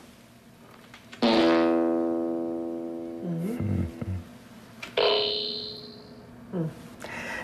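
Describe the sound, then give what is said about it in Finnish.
Two synthetic fart sounds: a long, loud buzzy blast that sags in pitch and wobbles at the end, then a shorter, brassy raspberry-like burst, with a brief murmur in between. “Kuunnellaanpa muutama esimerkki ihmisen yrityksestä luoda synteettinen pieru.”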